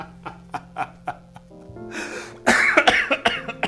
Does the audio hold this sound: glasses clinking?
no